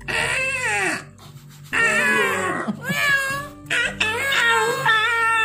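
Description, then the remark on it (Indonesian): A human voice imitates a dragon's cry with three loud, wavering, drawn-out wails separated by short pauses, with no other talk. “itu naga atau bayi pak?”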